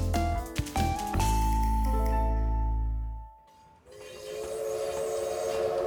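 A train sounds its horn loudly with a sustained, droning blast over the heavy rumble of cars on the rails, then the horn cuts off and the steady rolling rattle continues.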